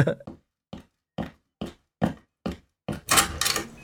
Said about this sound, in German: Das sind meine Fußstapfen, die so. Weil ich trage Stiefel.